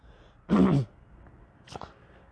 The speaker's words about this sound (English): I don't know why I'm clearing my throat so much. Excuse me.